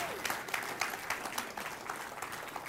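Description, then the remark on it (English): A church audience applauds steadily, celebrating 55 people giving their hearts to Jesus across the church's three locations. A dense wash of many hands claps at a lively, even level throughout, with no voices standing out. “Come on, clap one more time.”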